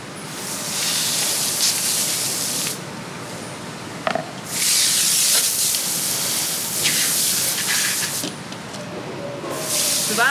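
A garden hose sprays water in loud, hissing bursts while cleaning out a pond basin, the jet cutting off briefly a few times before surging back, with no voices.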